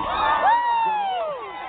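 A crowd cheers loudly for under two seconds for a dog jumping to make the 20-foot mark, several voices whooping together in a rising then slowly falling shout, steady before easing off at the end.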